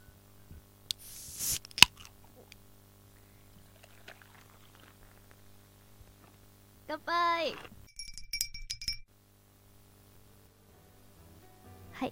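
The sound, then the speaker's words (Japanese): A single sharp, bright clink of glass rings out near the start. A quiet stretch follows, then a rising, wavering tone and a few brief high pings. A toast in a studio during a public recording, with a Suntory Kaku highball. “はいでは早速ですがそろそろ乾杯しましょう”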